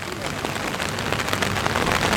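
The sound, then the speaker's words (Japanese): Steady rain falls outdoors at the Tokai Cyclocross race, a dense, continuous hiss of drops with scattered sharper patters, even in loudness, with a faint murmur of voices underneath. “僕もだんだんもう雨でだんだん無口になってきました”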